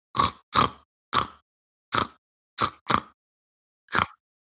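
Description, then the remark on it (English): A person playing a tabletop role-playing game imitates a pig, pretending to be one, with seven short, rough grunts in an uneven rhythm, some in quick pairs, fairly loud, with brief silences between and no talking. “okay, you're just gonna flat out try to pretend to be a pig.”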